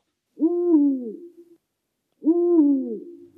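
Two long, mellow owl hoots, each sliding slightly in pitch and trailing off, spaced about two seconds apart. Clear, with silence between them and no talking.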